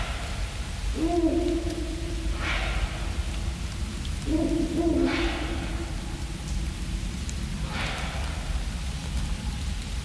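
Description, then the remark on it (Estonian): A pair of Ural owls call at night in a forest, a low steady hoot answered by shorter rising calls, repeating a few times over a constant rain-like hiss. “ja sageli on ka tõenäoliselt selline puu juba enne murdumist oma elujõu kaotanud siin on Hancocku paari hääled öises metsas”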